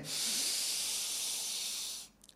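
A long, steady breath drawn in hard for about two seconds, filling the lungs like a balloon in a 'balloon and a half' breathing exercise, a loud airy hiss that cuts off abruptly, followed by a brief faint rustle.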